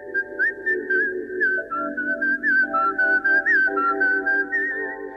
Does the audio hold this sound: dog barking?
no